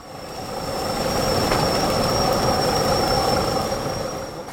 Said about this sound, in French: Nous sommes à Podolsk, au sud de Moscou, dans l'usine du géant russe de l'énergie atomique Rosatom. Ce qu'on entend, ce sont des ouvriers en train de souder au milieu d'énormes gerbes d'étincelles. La scène est impressionnante.